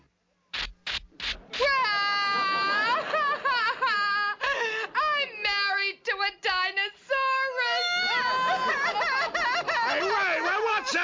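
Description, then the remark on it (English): Several people crying and sobbing loudly, their high, wavering wails overlapping in a continuous stream after a few sharp clicks at the start, growing more layered toward the end. “everybody crying about?”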